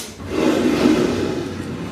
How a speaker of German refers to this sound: Jetzt, jetzt steht der Stuhl da neben dir. Jetzt zieh den mal bitte her.